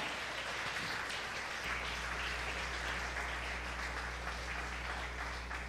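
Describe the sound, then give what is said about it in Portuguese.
A crowd applauds the name of Jesus continuously, a dense, steady wash of many hands clapping with no pauses, loud and sustained throughout, while a low hum sits underneath from partway in. “Então aplauda o nome de Jesus, aleluia!”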